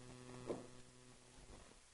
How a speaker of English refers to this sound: There's kind of interference here. There we go.